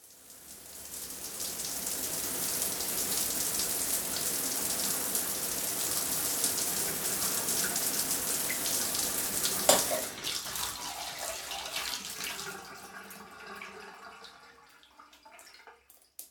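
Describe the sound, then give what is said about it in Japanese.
A shower runs in a steady, hissing spray for about ten seconds, then shuts off abruptly, leaving scattered drips and small trickles that fade into quiet. No voices are heard. “シャワーから上がり、濡れた髪の毛をバスタオルで拭きながら”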